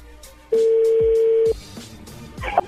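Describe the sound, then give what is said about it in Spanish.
A phone keypad tone, as a number is dialed again for a call from a radio programme, sounds as one loud, steady, mid-pitched beep lasting about a second, followed by quiet line noise and a brief higher blip near the end. No one speaks. “A ver, márcala de nuevo, de una vez.”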